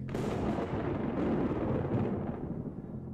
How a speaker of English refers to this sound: I love a lightning storm. Me too, Dad.